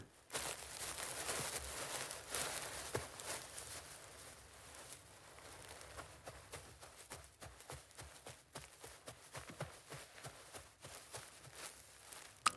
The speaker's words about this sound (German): Und wie schon vorher erklärt ist, aus technischen Gründen, vom Dreh gibt es keinen Ton dafür. Das heißt, da haben wir nachträglich diese Schritte machen müssen.